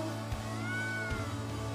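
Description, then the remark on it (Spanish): A single drawn-out meow, rising and falling in pitch, made by a human voice imitating a cat. It is clear over a steady low hum, with no other talking. “Usted no va al pecado y le hace, miau.”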